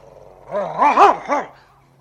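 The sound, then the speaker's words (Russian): A dog, especially agitated, growls and lets out a short string of three or four excited, whining barks in quick succession, loud, with no one talking. “Посмотрите, посмотрите на собаку.”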